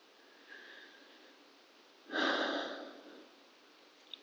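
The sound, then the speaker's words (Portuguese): A single slow, deliberate, controlled breath swells broadly for about a second and fades, preceded by a faint inhale and surrounded by quiet hiss, taken to slow the heart and calm down before going on stage in a theatre. “Eu preciso controlar minha respiração para diminuir o ritmo do coração e me acalmar.”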